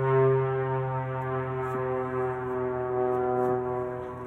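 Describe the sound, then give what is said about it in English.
A steady, droning engine hum with a strong buzzing tone holds throughout, like an airplane passing low overhead near an airport, fairly loud and constant with no voices. “I was listening to the airplane.”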